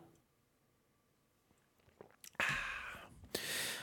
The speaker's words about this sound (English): did you enjoy that drink? I did. I really enjoyed that drink. down there. You gulped that down.